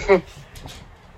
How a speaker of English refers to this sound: Oh, Hi, Roxy. My dog's talking to us.